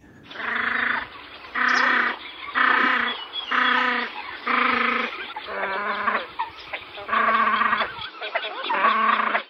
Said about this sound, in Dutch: Nou, dan gaan we nog één keer luisteren naar het geluid van de fut.